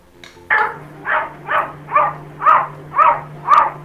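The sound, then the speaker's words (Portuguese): A cat lets out about seven short, rough bark-like calls in a quick, steady rhythm, loud, over a faint low hum. “tinha um vídeo de um gato latino.”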